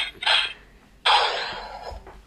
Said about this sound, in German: Ups, das war die Schusstaste. Ich glaube, ich höre damit lieber auf.